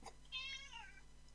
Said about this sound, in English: Isn't that right, Lewis? You always meow for food.